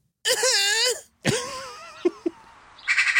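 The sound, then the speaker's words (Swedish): A person imitates a magpie's call: a long, harsh nasal squawk, a second wavering cry, two short clucks, then a brief raspy chattering rattle, with no other sounds. “Utan en skata, ja du kan väl, kan du försöka ta och imitera en skata?”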